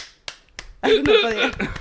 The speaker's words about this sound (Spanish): le aplaude, como en, el, como, como en el conurbano, ¿viste? Que tenés que aplaudir.